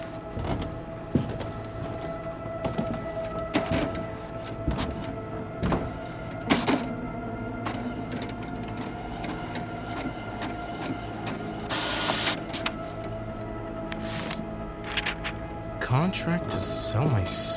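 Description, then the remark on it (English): A printer whirs and clatters with a steady mechanical hum, repeated clicks and feed motor whines, and a few louder bursts of rushing paper movement near the end. “I could have sworn my printer was off.”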